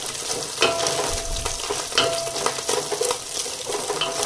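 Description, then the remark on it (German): Food sizzles steadily in a hot pan, its water already cooked off so it is now frying, a dense crackling hiss with occasional louder pops and faint stirring scrapes, with no one speaking. “ihr hört das am Ton, dass das schon brät und kein Wasser mehr ist.”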